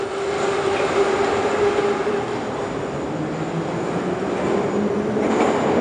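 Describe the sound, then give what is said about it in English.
Steady, loud rumble from inside a moving passenger train in Moscow, heading to the Fan Fest, with a constant low hum and a faint whine running underneath. No one speaks. “Let's go and like uh, many of our trips uh, here in Moscow uh, to go between stadiums and places, it starts with a train journey, which sounds good for SBS fans and people that love trains on SBS.”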